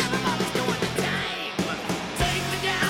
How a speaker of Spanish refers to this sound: A la voz le acaban de meter litros de reverb. Para que parezca más gente, imagino.